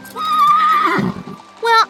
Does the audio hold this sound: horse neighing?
yes